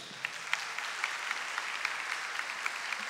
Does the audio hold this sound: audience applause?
yes